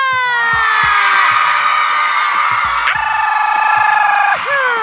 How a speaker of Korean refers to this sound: 모두 즐길 준비 되셨나요? 아! 아니에요, 여러분. 이 정도 함성으로 시작을 못해요. 아시잖아요. 다시 한번 소리 질러!